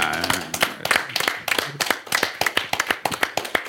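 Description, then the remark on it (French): Audience applause welcoming songwriter Claude Lemel: many hands clapping in a dense burst that thins into sharper, more regular individual claps toward the end, with faint voices mixed in. “Et le roi absolu des auteurs à la SACEM, mesdames et messieurs, je vous demande d'applaudir l'immense Claude Lemel.”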